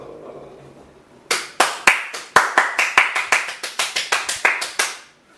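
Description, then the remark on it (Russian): After a quiet second, hands clap in a steady, brisk rhythm, roughly eighteen sharp, bright claps over about four seconds, then stop abruptly, as applause for a first-place prize winner. “Бурные продолжительные аплодисменты, переходящие в овации.”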